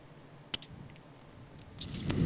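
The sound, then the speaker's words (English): Someone licks their fingers after eating chips, making a few short, wet smacking clicks, quiet and scattered, with soft mouth noise building toward the end. “I'm gonna so lick my fingers now.”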